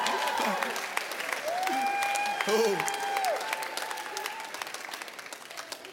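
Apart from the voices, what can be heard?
audience applause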